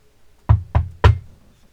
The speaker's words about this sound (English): knock on the door.